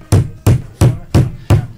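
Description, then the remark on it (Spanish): A hammer strikes a small metal spoon five times in a steady rhythm to flatten it, each blow a loud, sharp thud with a brief metallic ring. No one speaks. “ahora estás martillando una cuchara”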